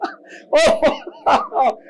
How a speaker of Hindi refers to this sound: God bless you brother